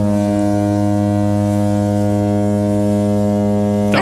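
A loud, low spoiler warning horn blares in one unbroken, steady blast for about four seconds, buzzy and rich in overtones, with no voices over it before it cuts off abruptly.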